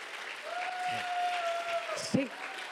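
A church audience claps steadily for the Lord in a dense, continuous wash of applause, with a long sustained tone held over it and a short vocal burst near the end.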